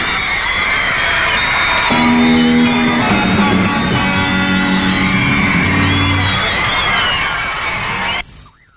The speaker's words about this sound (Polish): To się działo, piski, wszystko było, wszystko, prawdziwy rock and roll.